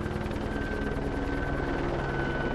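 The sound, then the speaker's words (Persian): A logging company's helicopter, which had been surveying the area, flies quickly to a logging camp after hearing a call for help. Its rotor chop pulses overhead in a fast, even rhythm with a constant low engine rumble and a faint high whine, loud throughout with no voices. “هلیکوپتر یکی از شرکت های الوارکنی که تو اون منطقه نقشه برداری میکرد پیام کمک رو شنیدن و خیلی سریع به کارگاه رفتن”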